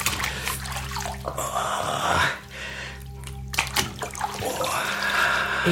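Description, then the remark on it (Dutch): Steady sloshing and swishing of bathwater as a rough washcloth is rubbed and moved through it during a bath, with brief louder splashes over a low background hum; no one speaks. “Het is nogal een ruw washandje.”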